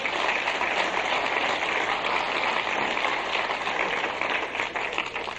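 Steady audience applause: a dense, even wash of many hands clapping that holds at a fairly loud level for about five seconds, easing slightly at the end, with no talking over it.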